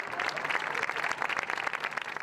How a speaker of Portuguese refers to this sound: Os dois últimos pacientes deixaram o hospital hoje pela manhã. Eles voltaram para casa sob salva de palmas, que marcou também a despedida dos profissionais da linha de frente.